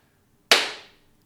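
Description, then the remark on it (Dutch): One sharp, loud hand clap cracks out of silence, its bright snap trailing off in a brief ringing decay. No voices are heard. “ja, je mag klappen.”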